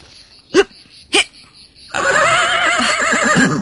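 A horse gives two short, sharp snorts, then breaks into a long, loud, quavering neigh that trembles up and down for nearly two seconds, with no one speaking.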